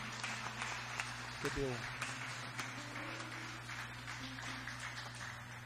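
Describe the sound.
A church audience applauds to thank God for a woman's life as she comes forward to testify, clapping steadily for several seconds, a dense wash of clapping over a sustained low tone, with a brief rising voice partway through.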